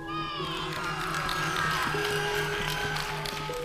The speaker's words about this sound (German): Dabei lächelt er den Wichteln zu, die ihm von unten fröhlich zuwinken und sich jubelnd für den Stern bedanken.